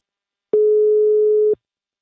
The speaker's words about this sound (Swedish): Nu tar vi en kort paus och ringer upp min samarbetspartner Invacare.